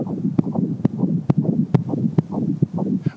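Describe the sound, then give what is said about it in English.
A steady, rhythmic heartbeat pulse thumps along at a quick even pace, each beat a sharp knock over a low, murmuring rumble, with no voices. “And it all started with a simple heartbeat.”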